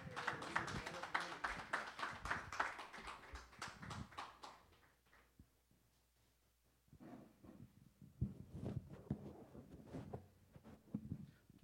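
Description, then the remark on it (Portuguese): A church audience at an evening service bursts into loud, dense applause welcoming their pastor to preach. It fades out after about four seconds, followed by a hushed pause and then a renewed patter of scattered claps and crowd sounds. “o qual já chamo, que a igreja o receba com uma calorosa salva de palmas para Cristo.”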